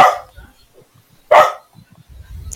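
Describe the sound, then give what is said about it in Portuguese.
Two loud dog barks, one at the start and another about a second later, separated by near silence, with faint low rumbling noise toward the end. “Acho que ele o quer cachorro falar também tá reclamando, tá vendo?”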